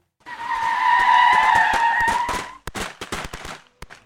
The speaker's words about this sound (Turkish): Kaçan bir otomobilin ve motosikletin gürültüsü duyuldu.